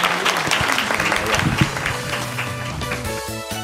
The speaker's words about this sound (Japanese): 大きな拍手でお送りくださいどうもありがとうございました